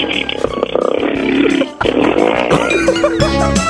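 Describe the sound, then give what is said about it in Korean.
A second-year high school girl imitates a motorcycle engine on Park Myung-soo's Radio Show: a loud, buzzy, continuous revving that breaks off briefly midway, then resumes with rising, shifting pitch like the bike accelerating through gears. “저 오토바이 준비저 고2 여학생이 하는 소리입니다.”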